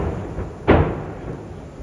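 A single explosion at a burning ship in port bursts out abruptly, a broad booming thud that fades over about a second against a steady, noisy background rumble. No one speaks.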